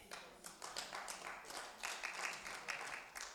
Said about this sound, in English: I'm glad, I, I'm surprised we got some claps right there.